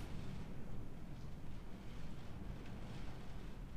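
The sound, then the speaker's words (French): Rain drums steadily against window glass, a dense, continuous patter with a low rumbling wash underneath, like wind gusting outside. No voices are heard. “On va laisser l'appui continuer à s'abattre sur les vitres”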